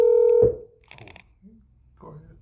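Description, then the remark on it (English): A loud, steady telephone tone sounds for about half a second and cuts off, followed by quieter, brief bursts of DTMF tones as a telephone number is dialed. “Let's see, let's see if they answer the phone first.”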